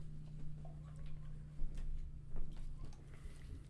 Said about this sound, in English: God damn, you heard those footsteps coming. What? I said, God damn, you heard those footsteps coming. boom, boom, boom.